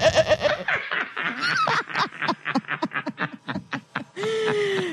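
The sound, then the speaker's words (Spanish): Goats, Luis and Mowgli, bleat in a busy, overlapping series of short, wavering cries, ending with one longer sustained bleat. The sound is fairly loud, with no talking. “Aquí tenemos un, SOT, que es lo que le decimos a las declaraciones de las cabras, que nos quieren decir las cabras.”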